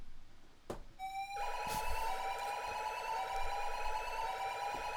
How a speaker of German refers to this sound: Äh, ja, nun, das ähm, können, ist das normal? Können Sie das? Ja, das klingt, das klingt für mich nach einer Diebstahlsicherung.